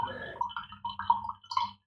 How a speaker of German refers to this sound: da plätschert es. Wie gesagt, nicht pinkeln. Letztes Tröpfchen Tee noch rausgepresst.